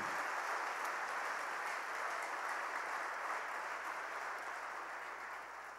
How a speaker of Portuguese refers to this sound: Aplauda mesmo a Jesus, ele é digno.